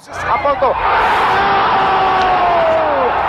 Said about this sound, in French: Alors là, ce qu'on voit pas, c'est la foule en délire qui envahit, le terrain.